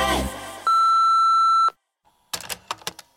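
A single loud answering machine beep on radio station Expres, one steady high-pitched tone lasting about a second, followed by a brief silence and a few sharp clattering clicks.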